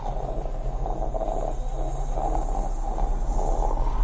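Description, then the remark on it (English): A voice makes a steady, unbroken rushing hiss with a low rumbling undertone, imitating white noise. It is fairly loud, holding evenly for about four seconds with no talking. “Just constant white noise.”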